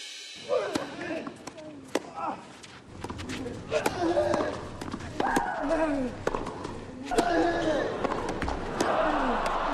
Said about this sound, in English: I am sure you recognize the first set of sounds, the classic tennis player grunts during a rally.